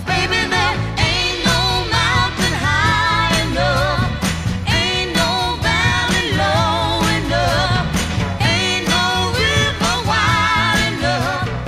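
A 1960s soul duet plays loudly and steadily, with sung vocal lines gliding over a full band of bass, drums and brass, filling the whole stretch without pause.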